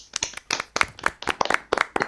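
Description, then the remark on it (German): Brisk clapping from a small group, sharp irregular claps coming in quick bursts, fairly loud and without any voices. “Ja, ja Applaus erstmal, würde ich sagen.”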